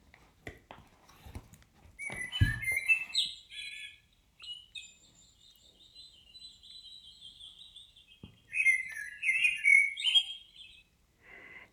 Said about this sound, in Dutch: We horen een vogel, ik zal hem eventjes, dat is een merel